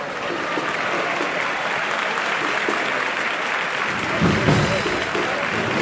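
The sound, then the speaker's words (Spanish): Sustained applause from a large crowd as the doors of the parish church of San Sebastián open for the Hermandad de la Paz, dense and steady throughout, with cheering voices mixed into the ovation and a slight swell near the end. “Y esa es la ovación, qué emoción, qué emoción.”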